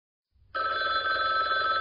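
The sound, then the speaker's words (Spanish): A telephone rings loudly and steadily as a timer signal in a drawing game, meaning time is almost up, starting after a brief low rumble and continuing as a sustained electronic ringing tone with no talking over it. “Bueno, ahí suena el teléfono, significa que está por terminar el tiempo.”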